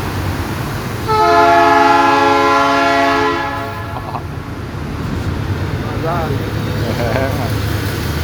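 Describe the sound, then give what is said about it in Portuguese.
A passing train blasts one long, loud, steady horn chord for a few seconds over a low rolling rumble, which carries on after the horn stops, with faint voices in the background. “o trem tá passando.”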